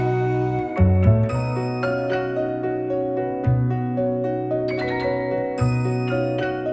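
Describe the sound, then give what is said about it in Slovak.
A small bell rings out several times in an irregular sequence, each strike leaving a long, shimmering sustain that overlaps the next; clear and fairly loud, with no voices. “Na konci zvonec zvoní, všetci žijú šťastne.”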